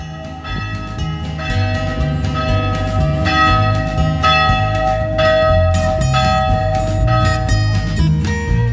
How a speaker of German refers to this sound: ja, wir hören hier die Kirche von Köwenick und haben vielleicht noch 200 Meter und sind am Bahnhof.